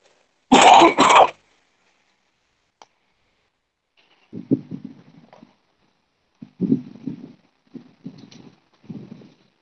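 A loud, harsh cough bursts out first, then after a pause several rougher throat-clearing rasps follow in short bursts, with no talking.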